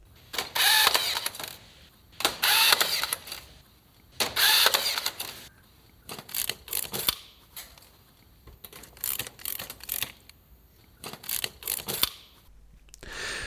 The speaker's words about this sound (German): Damit der Stahl im Beton seine Position hält, muss er verbunden werden. Und das klingt so.